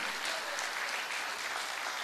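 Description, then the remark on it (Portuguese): A church audience claps for Jesus together in steady, dense applause that holds at an even level for the full two seconds, with no voices rising above the clapping. “Dá uma salva de palmas a Jesus, porque nós somos uma igreja avivada.”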